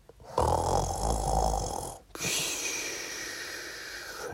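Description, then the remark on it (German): A single drawn-out snore from a mouse lying down on a pillow, fairly loud: a rough, rattling inhale lasting about two seconds, then a long breathy, hissing exhale. No talking. “sie schon geschnarcht”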